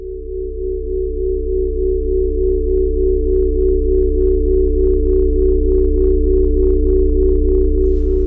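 Experimental sound art by Polish saxophonist and sound artist, interpreting Wacław Szpakowski's lines: a loud, unbroken drone of steady held tones over a deep low rumble, with faint pulsing overtones that gradually swell in a regular rhythm. No voices.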